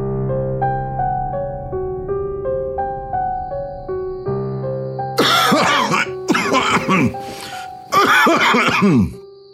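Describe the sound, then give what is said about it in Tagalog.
Gentle piano notes play alone at first, then a person with tuberculosis, who has had a cough for three weeks, coughs hard in several harsh, raspy bursts, with the music continuing softly underneath. “Tatlong linggo na akong inuubo.”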